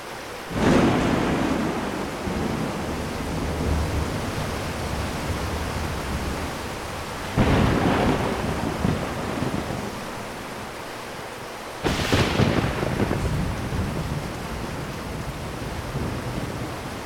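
A heavy thunderstorm with a sudden downpour: a steady, dense roar of pouring rain, broken by three loud thunder cracks that rumble on for several seconds. No one speaks.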